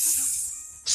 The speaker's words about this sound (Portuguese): a vírgula pode ser o Henrique abrindo a cervejinha